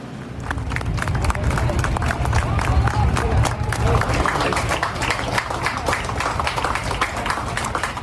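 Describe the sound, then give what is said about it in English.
Sustained applause from New York police officers clapping on a street in New York City for medical workers who came from around the country. Dense overlapping claps hold at a steady loudness, with crowd murmur and occasional cheers mixed in throughout. “This is New York police officers applauding medical workers who came from other places around the country simply to help out New York City.”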